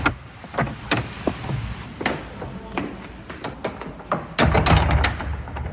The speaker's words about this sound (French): on va donc ouvrir une ouverture au sud, l'ouverture actuelle, qui donc date de la Révolution. Et maintenant, c'est l'entrée principale. Et eh ben, on va entrer justement dans cette abbaye par cette grande porte en bois qui va s'ouvrir.